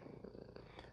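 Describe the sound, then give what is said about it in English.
A domestic cat named Peanut purrs softly and steadily while sitting on someone's lap, a low rumbling flutter with a gentle rhythmic pulse, heard alone and fairly quiet. “Oh my gosh, you could probably hear our cat Peanut, who is sitting on my lap and purring in the background,”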